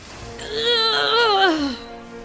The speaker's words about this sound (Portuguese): Gritavam os piratas se preparando para o ataque.